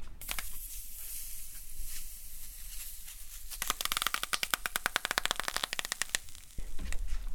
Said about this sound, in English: He lightly soaks the board with the spray bottle and then he bends it on the piece of aluminum, which is heated to 300 degrees Fahrenheit. And when he bends the wood on it, it not only steams, but it crackles.